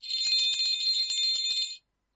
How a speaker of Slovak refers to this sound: môžeme aj my zazvoniť pomyselným zvončekom, ktorý nám Dušan Peťko venoval do redakcie